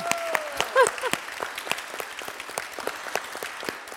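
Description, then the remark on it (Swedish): An audience applauds steadily, a dense patter of many hands clapping at a moderate level, with a few brief whoops rising above the clapping near the start. “Att få en riktig applåd. Kan jag inte få en till?”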